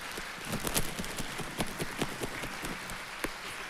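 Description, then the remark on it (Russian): A festival audience claps steadily throughout in an ovation for Honored Artist of Russia Anita Tsoi and another performer, a dense crackle of many hands with some sharper individual claps standing out, at an even, moderate level with no voices. “Цветы, овации, пожалуйста.”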